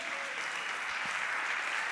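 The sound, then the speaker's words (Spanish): A church audience applauds the Lord steadily, a dense, continuous wash of many hands clapping at once, sustained and fairly loud throughout with no voices standing out. “Yo de usted decía amén y le da un aplauso al Señor.”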